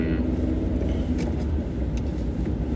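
car interior driving rumble

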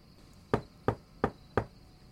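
knocking on a door

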